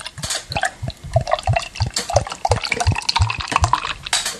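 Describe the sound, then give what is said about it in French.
Beer sloshing and gurgling as it is poured, with a steady run of low glugs repeating about three times a second under a bright, fizzy splash. No one speaks. “Ça clapote, ça clapote.”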